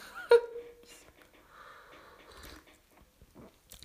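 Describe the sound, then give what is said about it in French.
Someone takes a sip of tea: a sharp clink of the cup near the start, then soft slurping and swallowing noises, with no talking. “Voilà, petite gorgée de thé pour, euh, pour euh, parce que là, attention, il va falloir s'accrocher.”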